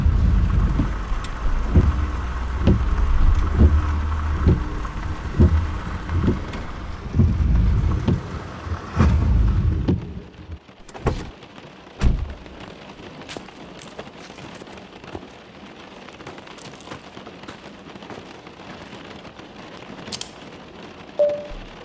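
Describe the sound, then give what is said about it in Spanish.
Steady, fairly heavy rain hisses throughout, with scattered sharp drop impacts. Low rumbling thumps and wind buffeting dominate the first half before the rain continues more on its own. “Hola, estoy en un IPF, paré porque se largó a llover medio fuerte y me pareció más seguro.”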